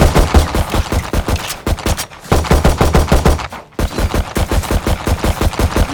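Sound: video game automatic gunfire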